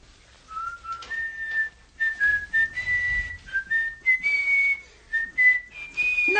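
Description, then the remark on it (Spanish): A person whistles a gentle, sweet melody, with smooth sustained notes gradually stepping higher in pitch over several seconds, with no talking. “No, hombre, no le chifles melodías dulces.”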